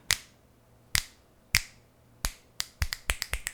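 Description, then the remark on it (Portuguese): Crisp, dry finger snaps, about a dozen in all: a few evenly spaced at first, then coming faster and closer together toward the end. No one speaks. “O último que prometeu zerar déficit num estalar de dedos assim, ó.”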